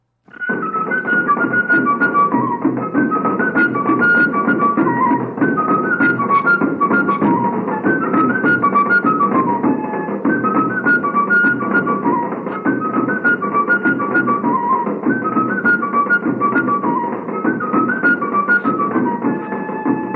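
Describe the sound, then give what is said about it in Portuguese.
A lively cabaçal march played by two fifes (pífanos) in bright, interweaving melody over a steady zabumba bass drum and caixa de guerra snare, continuous and loud throughout with no voices. “em geral, é executado por zabumba, caixa de guerra e dois pífanos.”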